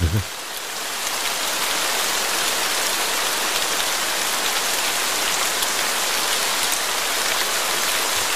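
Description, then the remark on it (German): Steady rain patters on a hard surface, a dense continuous hiss of droplets with fine crackling detail, fairly loud throughout with no voices. “Ach, ist das nicht herrlich. Endlich wieder Regen.”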